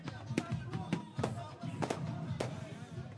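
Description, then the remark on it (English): A rapid barrage of fireworks fills the sky during a bate-bola street celebration, drowning out the music: half a dozen or more sharp cracking bangs at irregular intervals over a dense, noisy crowd ambience with indistinct voices. “As a barrage of fireworks fill the sky and drown out the music, the bate-bolas hit the streets, bashing their balls on the ground.”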